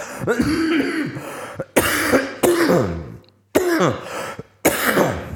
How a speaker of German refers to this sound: Ganz, ganz kurz. Lass mich eben husten.